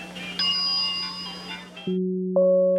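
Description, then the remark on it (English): A bright bell ding rings over a soft hiss in a radio advertisement, followed by two clear, sustained chime tones stepping upward, loud, with no one talking. “If it rings with natural flavor, it's Bell.”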